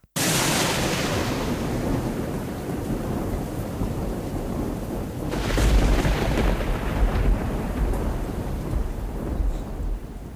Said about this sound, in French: Les bruits de tonnerre. le le tonnerre.